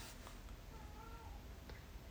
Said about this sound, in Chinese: 外面有猫在叫春。